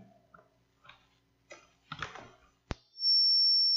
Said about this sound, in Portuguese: Opa. Deu uma microfonia aí.